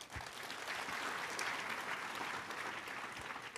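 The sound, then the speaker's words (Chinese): An audience claps steadily for several seconds, a dense wash of many hands at a fairly even loudness with no one speaking over it. “来，给先给他们拍拍手。”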